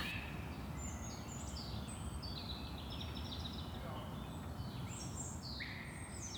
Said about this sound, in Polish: portalu freesound.org można znaleźć nadal wolne do pobrania e, właśnie chociażby dźwięki ptaków, dźwięki lasu